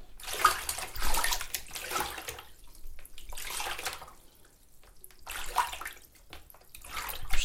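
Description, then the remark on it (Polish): Water sloshing roughly in a bowl to make rough, choppy waves, splashing in irregular surges that rise and fall, with no talking. “Albo bardziej wzburzone fale.”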